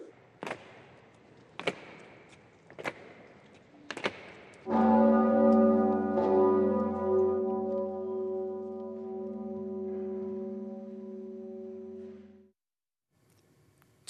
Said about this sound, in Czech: 34 úderů zvonu Zikmund připomnělo 34 let Svobodné republiky.